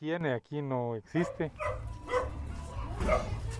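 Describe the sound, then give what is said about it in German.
A dog gives two loud barks in quick succession in a poor neighbourhood bordering the centre of Guatemala's capital, where chickens, goats and dogs roam everywhere, then someone starts talking over a steady background hum. “Überall laufen Tiere herum, Hühner, Ziegen und Hunde.”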